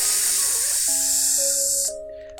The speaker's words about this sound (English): steam from the engine is just kind of pouring up.